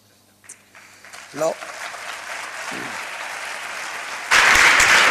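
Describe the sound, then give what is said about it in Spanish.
Audience applause for words dedicated by the Hermandad de la Magdalena builds steadily from a scattered patter into broad clapping, then swells abruptly louder and denser near the end; a few faint murmured voices surface early on. “de nuevo un, cariñoso aplauso para las palabras que le ha dedicado la Hermandad de la Magdalena.”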